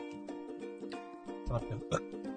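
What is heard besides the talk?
burp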